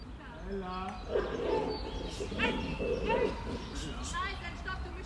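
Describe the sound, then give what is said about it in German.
An excited black-and-white dog greeting people it knows, letting out a quick run of high whines and whimpers broken by short barks and yelps, continuous and eager throughout. “weil er sich tierisch über die Menschen gerade freut.”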